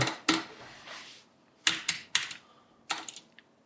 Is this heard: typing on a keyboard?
yes